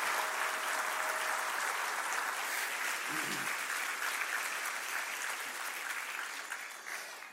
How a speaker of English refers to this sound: Let's give a, uh, another round of applause to everyone who took the step of baptism today.